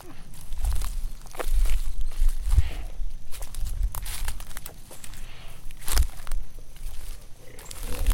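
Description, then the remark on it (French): Heavy footsteps crunch and crackle through dry ground cover in the middle of the night around a tent pitched on a summit, with a low, rumbling animal growl underneath, believed to be a large bear moving around and growling. “Et pour couronner le tout, au sommet, on a posé la tente et on s'est fait visiter par une bête énorme au milieu de la nuit. Selon moi, c'est un ours.”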